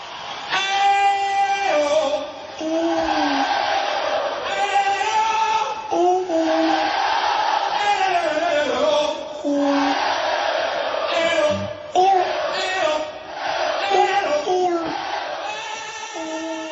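A baby coos and squeals in high, wavering bursts along with a loud, steady rock song, the little voice rising and falling over the music throughout.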